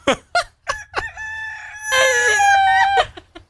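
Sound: rooster crowing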